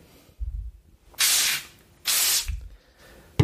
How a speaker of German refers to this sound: Und ich sprühe das jetzt nur auf eine Hälfte von meinem Tisch, weil ich unbedingt wissen will, ähm, ob es funktioniert.